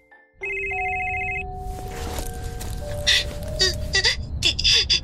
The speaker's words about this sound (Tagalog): Biglang tumunog ang cellphone ko.